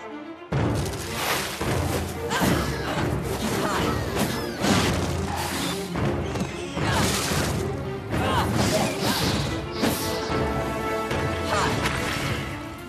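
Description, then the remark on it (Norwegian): Kung fu style fight sounds from the new video game The Legend of Kora, released this week and based on an American animated series: a dense, loud barrage of rapid whacks, smashes and thuds, with whooshing strikes and occasional short voice bursts, continuing steadily for several seconds. “Her hørte du lyd fra det nye spillet The Legend of Kora, som ble sluppet denne uka.”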